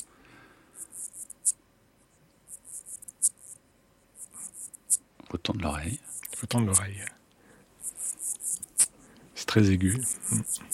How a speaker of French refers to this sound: Alors justement, à propos d'insectes, il y a le micronect, c'est ça Il faut nous en parler parce que vous le décrivez dans votre livre. On va l'écouter d'abord.